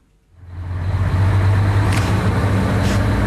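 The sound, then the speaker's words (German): A large snowplow truck's engine rises from quiet into a steady, loud low rumble with broad road noise. It holds constant as the truck drives along Römerstrasse clearing snow after heavy snowfall. No one speaks. “Wir sind hier auf der Römerstraße unterwegs, in so einem grossen Pfluglastwagen.”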